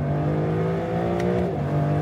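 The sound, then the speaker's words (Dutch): A Lexus LC convertible's engine revs with a steady, loud, deep harmonic growl for two seconds, its pitch dipping slightly partway through before holding again, with no voices. “Ja, de Lexus LC Cabrio.”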